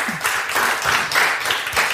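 An audience applauds a guest at the end of a talk, a dense wash of many hands clapping at an even loudness throughout, with no voices standing out.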